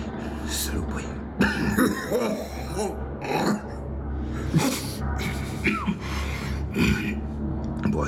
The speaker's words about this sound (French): J'ai attrapé froid pendant les fêtes. T'as une sacrée toux quand même. Ce serait pas la silicose plutôt